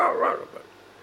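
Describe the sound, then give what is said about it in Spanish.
A dog gives a quick bark or two, moderately loud, then the sound trails off into quiet background with no one talking. “por fin llegaron a una fuente, él con los perros.”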